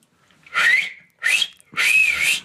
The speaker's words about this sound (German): Ich pfeife sie mal rein, Moment.